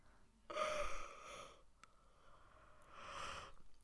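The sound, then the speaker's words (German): A breathy yawn with a voiced groan swells and fades over about a second, followed after a pause by a second, softer yawning exhale. “Okay, wir gähnen jetzt aber alle kurz.”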